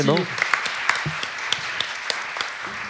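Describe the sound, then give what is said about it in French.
A small audience claps steadily for a few seconds to thank someone, a dense patter of hands with sharper individual claps, while a few voices murmur briefly underneath. “Ah bah oui, on l'applaudit.”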